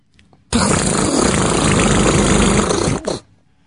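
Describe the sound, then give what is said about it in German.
A voice imitates a broken car engine with one loud, raspy, sputtering blast lasting about two and a half seconds, rough and buzzy throughout, then cutting off with a short trailing rattle. “Das war ein kaputtes Auto.”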